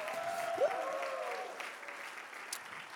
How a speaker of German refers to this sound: Zuallererst mal, hey, hier in Nürnberg, lass uns mal unseren Freunden in Erlangen mal einen riesen, riesen Applaus geben.